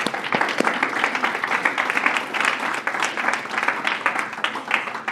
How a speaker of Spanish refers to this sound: Amén un aplauso al Señor.